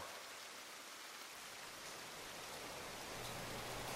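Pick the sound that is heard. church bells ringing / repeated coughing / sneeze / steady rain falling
steady rain falling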